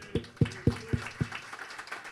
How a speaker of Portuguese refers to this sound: e todo aquele que crê no poder desta oração, diga amém e aplauda ao Senhor.